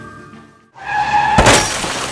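A car's tires squeal in a sustained, tonal skid, then a loud car crash hits with a burst of shattering glass that rings out and scatters briefly afterward. Forceful, with no voices.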